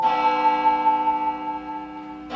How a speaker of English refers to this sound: The clock strikes noon.